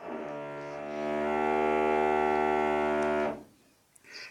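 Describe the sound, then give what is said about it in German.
A power drill whirs with a steady, loud droning whine for about three seconds, then cuts off abruptly, leaving quiet room noise with no one talking. “Der bohrt noch weiter.”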